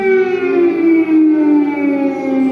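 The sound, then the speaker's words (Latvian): A loud air raid siren wails steadily in Ukraine at around six in the morning, its sustained tone slowly gliding in pitch with rich harmonics, continuous throughout with no voices present. “Gaisa trauksmes šorīt Ukrainā iedarbojās ap pulksten sešiem pēc vietējā un Latvijas laika.”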